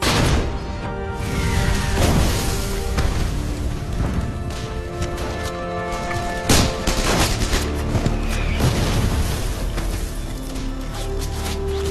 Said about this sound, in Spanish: Los certeros disparos obligan a los soldados alemanes de la división de montaña a refugiarse de nuevo tras el dique.